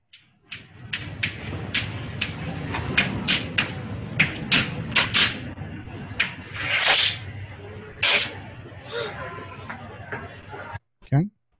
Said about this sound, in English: Uh, it's the teacher doing something. Um, oh, he's writing on the chalkboard. He's writing the uh, uh, the thing that Sean Penn said